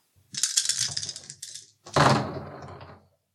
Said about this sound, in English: Yeah, so Tempo had amassed three green dice, one red die and in rolling those, they have come out as green nine. Green nine.